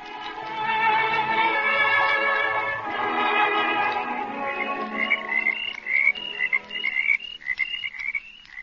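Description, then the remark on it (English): A dense chorus of croaking frogs fills an outdoor night at a university campus lake, steady and layered at first, then thinning into sharper, higher calls repeating in quick bursts. “Uh, this is the campus lake, honey.”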